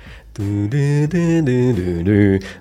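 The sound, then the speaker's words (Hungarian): A voice hums a short melodic motif of about five sustained notes, stepping up and down in pitch, the motif from a film used for communicating with extraterrestrials. Fairly loud, with no other sounds around it. “Így van, mert hogy ebbe a filmbe is van egy olyan taktus, ami, ami hát talán főszerepet játszik, ugyebár pont a földön kívüliekkel való kommunikáció.”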